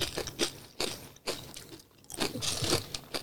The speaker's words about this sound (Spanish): Por los próximos cuatro minutos van a escucharme comiendo Nacho. Mientras que yo hablo.